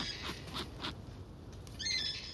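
A little blue penguin, returning from fishing to its nest burrow, gives a run of short, harsh calls, a few quick bursts and then a longer squabbling cry, annoyed at meeting an Owen's kiwi on its path, against a quiet outdoor night background.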